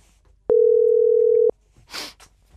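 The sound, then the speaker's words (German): A single steady phone ringback tone sounds for about a second, clear, followed by a short burst of rustling noise as the call is answered. “Mal schauen, ob sie abnimmt. Sie nimmt ab.”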